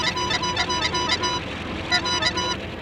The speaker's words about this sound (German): Es dauert dennoch nicht lange, bis das erste Auto anhält. Ein LKW.